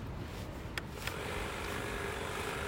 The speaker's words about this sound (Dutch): Ik eh, zit hier op een bankje met uitzicht op de mooie zee in uh, Ibiza. En je hoort op de achtergrond een of andere schaar. Ik weet niet dat ze de haag aan het scheren zijn. Ik hoop dat dat niet heel stoort.